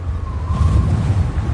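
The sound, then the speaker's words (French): A strong gust of wind blowing a roof shingle away roars steadily with a heavy low rumble, and a thin whistling tone rises briefly through it before fading. No one speaks. “c'est notre bardeau qui part au vent.”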